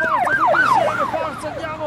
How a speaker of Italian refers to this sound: Per provare a risolvere la situazione arrivarono pure i vigili e il camion dei pompieri.